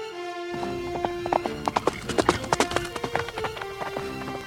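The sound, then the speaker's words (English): Late at night, a horse gallops to fetch the doctor, quick, rhythmic hoofbeats clip-clopping in a steady run, prominent, with a sustained tonal background underneath. “Beauty, hurry! Mrs. Gordon is very ill. We have to get the doctor as soon as possible. I will run as fast as I can.”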